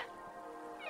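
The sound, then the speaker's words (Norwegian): A blue whale call: one drawn-out, tonal cry that wavers and then rises toward its end, heard alone and fairly clearly, with no voices. “Det her er lyden av en hval.”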